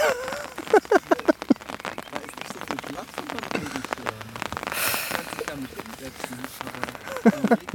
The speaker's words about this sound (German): Nee, total cool, dass es jetzt regnet.